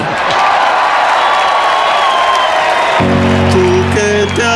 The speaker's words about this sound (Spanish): Un fuerte aplauso para Rigoberto Borboni.